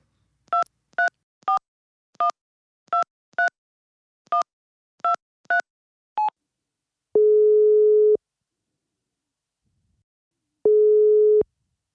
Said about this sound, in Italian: Dai, faccio il numero.